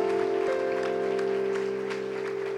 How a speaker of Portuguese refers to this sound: E se você crê nisto, cele isso com uma salva de palmas a Jesus Cristo, querido.